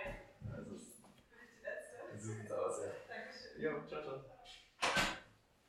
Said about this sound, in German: dann machen wir ja, Leon die Tür auf